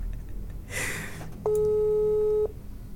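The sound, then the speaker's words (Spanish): A phone ringback tone on an outgoing call placed live on air: one steady, mid-pitched electronic buzz lasting about a second, loud and clear. It follows a brief soft rustle, and no one speaks. “Ahí está sonando.”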